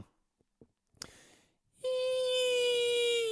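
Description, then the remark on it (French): A few soft clicks and a short breathy burst, then a voice imitates a whistling firework rocket: a loud, steady, buzzy tone whose pitch sinks slightly as it holds for over a second. “J'arrive pas à faire les, les, fusées sifflantes là, tu vois.”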